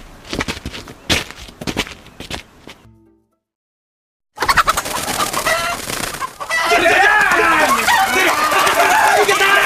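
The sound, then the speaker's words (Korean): Roosters squawk and cluck loudly in bursts during a cockfight where people bet on the rooster they think will win, with the noise building into a dense, continuous flurry of crowing and screeching after a brief silence, mixed with crowd murmur and voices. “이길 것 같은 달에 돈을 거는 것이오 아무리 닭싸움이라지만”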